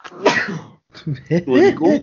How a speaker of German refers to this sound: Entschuldige, Gesundheit.